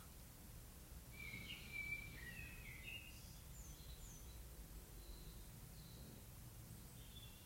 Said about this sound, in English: And just sit quietly. in this energy with the background of the bird noises.